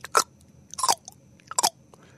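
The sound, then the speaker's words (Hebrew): Three sharp tongue clicks, made by a person demonstrating the click consonant at the start of a word in Xhosa, a language of South Africa, come at a steady, unhurried pace. Each is a crisp, bright pop with short silences between and no talking. “אני לא מבטא את זה נכון, כי את ה"ק" של ההתחלה צריך להגיד כמו קליק כזה, כמו...”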